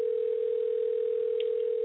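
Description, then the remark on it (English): A loud, steady telephone ringing tone on an outgoing call dialed out to bring a caller onto a live on-air broadcast, one unbroken electronic hum over a thin phone line, heard alone with no talking. “I don't know if y'all can hear the ringing, but it's really loud.”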